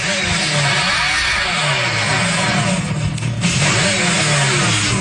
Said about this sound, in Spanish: Miren, encontré el sonido. que tenía, es que ah, ustedes saben como yo soy, que yo no voy a descansar. Óiganlo ahí. Es el sonido del, del Dodge.